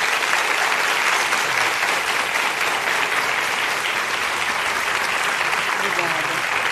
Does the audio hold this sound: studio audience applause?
yes